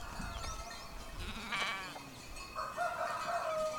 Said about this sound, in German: Der Tag bricht an in der Landgemeinde Galadinho im Nordosten Brasiliens. Die Ziegen werden aus ihrem Korall freigelassen und rennen in die Trockensteppe, wo sie den ganzen Tag über nach Futter suchen.